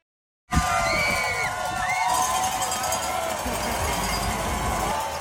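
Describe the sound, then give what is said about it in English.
Spectators cheer along a cross-country ski race course at the Loppet in Minneapolis, Minnesota, as heard by skier Jessie Diggins: a dense, loud wall of shouts, whoops and high yells that starts abruptly and holds steady for about five seconds, with bells clanking in the mix. “Oh, that's the sound that Olympic and world champion cross country skier Jessie Diggins heard from spectators along the race course during a historic weekend for cross country skiing here in Minnesota.”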